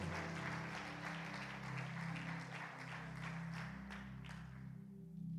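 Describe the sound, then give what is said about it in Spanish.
A crowd applauds steadily for several seconds, a dense rattle of many hands clapping at once over a low, sustained hum, fading slightly near the end. “Dale un aplauso a Lalo.”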